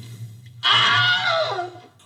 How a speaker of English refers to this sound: The discovery is an important piece of film history, a physical connection with a sound effect that's become movie lore. On that tape, you can hear the voice actor nailing it after a little direction. Oh, No, not, not an owl, a real scream pain